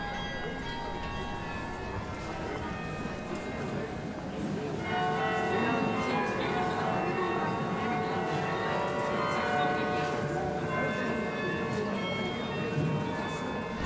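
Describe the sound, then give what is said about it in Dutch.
Carillon bells play a slow melody from a distance, their ringing tones overlapping and lingering into a continuous, shimmering wash that grows slightly fuller partway through. “zo'n Bijhard is ook wel een beetje anoniem hoor. Het is, van, het is ver weg en het lijkt heel vaak een beetje op elkaar, zou je ook kunnen zeggen.”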